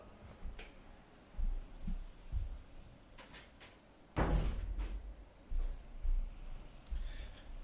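door being closed

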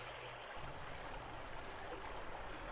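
flowing river water

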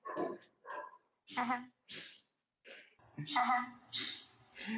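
dog barking

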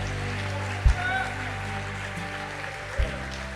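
church audience applauding

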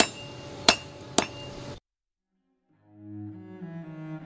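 blacksmith hammering metal

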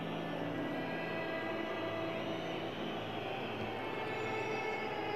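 stadium crowd whistling

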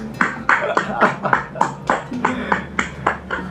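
people clapping hands

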